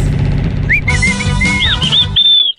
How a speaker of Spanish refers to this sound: ¡Uh! a ver, ¿quién, chifló así? ¿Quién chifló así de sí. A ver, ¿quién fue? Yo no fui, ¿Cómo, ¿Cómo chiflaron?